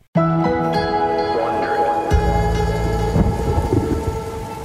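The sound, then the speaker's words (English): Steady rain pours down on a rainy day in Orangeburg, New York, in 2018, a dense hiss that starts abruptly and continues without pause, with low rumbling underneath and sustained tonal hums layered through it. “It was a rainy day in Orangeburg, New York in 2018.”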